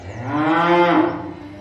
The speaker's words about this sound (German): Kuh.